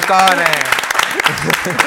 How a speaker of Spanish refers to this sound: Un aplauso